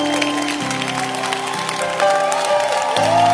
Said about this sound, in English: If you love the Lord, oh clap. I I I am enjoying your hand clap.